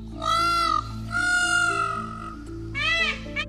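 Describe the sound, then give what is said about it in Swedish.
Three loud, piercing peacock calls in quick succession, each a harsh, wailing cry with a strained nasal tone, over a low steady hum. “Vi klämmer in hur en påfågel egentligen låter här.”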